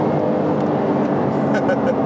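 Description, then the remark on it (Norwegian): Steady engine and road rumble from inside a moving Porsche 911 Cabriolet, a continuous low drone throughout with faint, indistinct voices beneath it. “Og da kommer vi jo til dette siden vi nå kjører 911”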